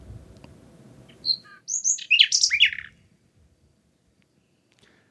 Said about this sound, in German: Ja, das ist auch eine eine Vogelart, die jeder dem Namen nach kennt, das ist die Nachtigall. Die übrigens äh, in Berlin sehr häufig ist.